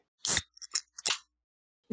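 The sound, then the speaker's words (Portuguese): Loud, crisp crunching of potato chips being chewed by a man at full volume: a handful of sharp, irregular bursts with short pauses between them, no voices present. “Homem que mastiga uma chips é a todo volume”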